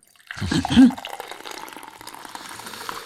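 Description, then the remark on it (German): Tea is poured steadily into a cup, a continuous splashing trickle lasting a few seconds, with a brief low murmur at the start. “Ich gieße mir jetzt einen Gedenktee für Last.fm ein.”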